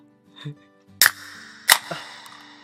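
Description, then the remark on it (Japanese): Two cans of Premium Malt's beer are cracked open one after the other, each a sharp pop with a quick fizzy hiss, separated by under a second of quiet room tone. “かましましょう。プシュッと。”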